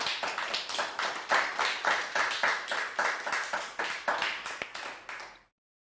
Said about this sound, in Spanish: Es para darnos, dale un fuerte aplauso al Eterno porque se lo merece.